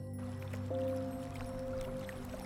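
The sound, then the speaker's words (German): Soft, steady wash of gentle sea waves, low and continuous, in the background of a guided meditation, blended with sustained calm drone-like Far Eastern musical tones that shift pitch once. No one speaks. “Im Hintergrund das sanfte Meeresrauschen und angenehme Klänge aus Fernost.”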